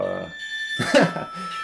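A telephone rings with a steady, high electronic tone that holds throughout, while a voice briefly speaks over it partway through.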